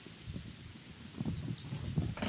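A dog runs past, its quick paw steps making a soft, uneven patter with a light metallic jingle, like collar tags, toward the end. No one speaks.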